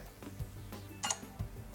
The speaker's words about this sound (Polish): Zawibrował trzykrotnie to mój telefon, usłyszeliśmy dźwięk wejścia w typ formularzy znany z NVDA i Shine Plus wrócił.